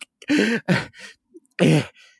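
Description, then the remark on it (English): A voice imitates a woman, the character Rootin' Tootin' Judy lying on the ground, gasping for breath: three strained, ragged gasps in quick succession with a brief pause before the last, fairly loud with no other speech. “Um, and yeah, you see, you see, uh, Rootin' Tootin' Judy's like gasping, like on the ground, like,”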